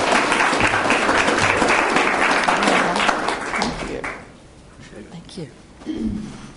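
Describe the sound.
A crowd claps steadily in a dense, loud burst of applause for about four seconds, then it fades out and a voice begins speaking over the tail end.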